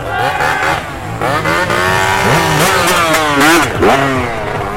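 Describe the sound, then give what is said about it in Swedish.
A Yamaha motocross motorcycle, number 52, revs and labors as it rides calmly and methodically through the peat bog at Gugges myr, pitch rising and falling repeatedly, loud and continuous with other engine noise behind it. “Och nummer 52, en Yamaha-förare som passerar också lugnt och metodiskt.”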